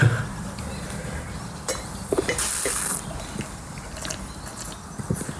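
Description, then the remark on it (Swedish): Champagne glasses filled with a 2015 vintage champagne clink together once in a toast, a bright ringing chime that lingers briefly, with soft handling noises and shuffling around it. “Ska vi smaka? Ja, gärna. Ja, skål. skål.”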